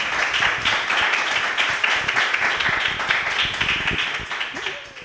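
Sustained audience applause, a dense crackle of many hands clapping steadily at a fairly loud level, tapering slightly toward the end.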